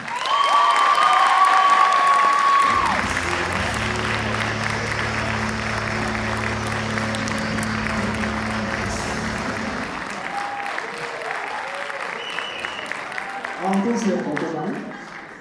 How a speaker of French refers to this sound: Je vous demande de faire un tonnerre d'applaudissements pour Monsieur Corinne Nemec.